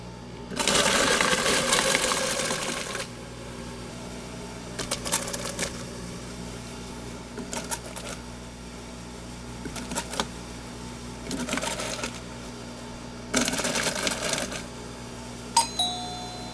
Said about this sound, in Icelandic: Þetta er hljóð í eldhúsinu. Þetta var djúsvél.